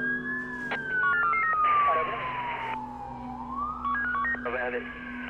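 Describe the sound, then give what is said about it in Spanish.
Several police and ambulance sirens wail at once at the scene of a shooting attack minutes after it happened, a long rising and falling tone overlapping with faster warbling sirens, loud, with a voice speaking underneath amid traffic rumble. “Minutos después del atentado, el lugar se llena de policía y ambulancias.”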